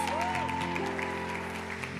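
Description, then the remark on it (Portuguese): An audience applauds invited guests with dense, steady clapping that holds at an even loudness for about two seconds, with a faint sustained tone running underneath. “Eu sou de palmas!”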